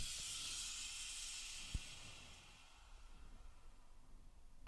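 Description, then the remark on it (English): A bright, steady fizzing hiss from a freshly opened beer can fizzing over, strongest at first and slowly dying away, with a small click midway and a sharper knock at the very end. “I just cracked another beer and it fizzed all over, but I, I didn't spill it this time.”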